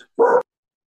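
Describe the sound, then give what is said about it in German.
A single loud dog bark, short and full-bodied, followed by silence. No one speaks. “okay, die Hunde bellen.”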